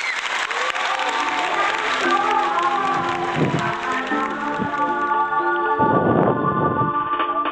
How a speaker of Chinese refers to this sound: 来，掌声欢迎。